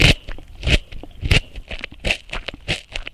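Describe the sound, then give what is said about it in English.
Crunchy bites into a raw carrot: a series of sharp, brittle crunches in quick, uneven rhythm, each burst loud and dry, with no talking. “And this is a crunchy carrot.”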